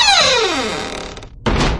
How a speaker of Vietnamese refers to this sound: Doãn cùng hai tiền gia nhân khác kéo mẹo vào trong nhà Rồi đóng sập hai cánh cổng bằng gỗ lim lại